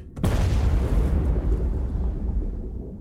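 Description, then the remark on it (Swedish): A type 65 76A torpedo explodes in the forward part of a submarine at periscope depth during a torpedo-firing exercise: one sudden, loud blast followed by a deep, heavy rumble that slowly fades over a few seconds, with no voices. “En explosion inträffar i ubåtens främre del Explosionen startar en kraftig brand och en tryckvåg sprider sig vidare från torpedrummet till stridsledningsrummet.”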